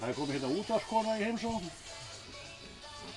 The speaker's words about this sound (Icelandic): Hér er verið að púsa